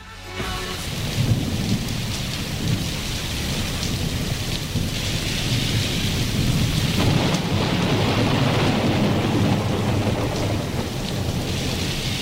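Steady heavy rain pours throughout, with deep rolling thunder rumbling low and continuous beneath it, a dense storm with no voices.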